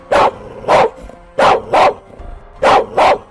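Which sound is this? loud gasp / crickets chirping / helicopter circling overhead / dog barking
dog barking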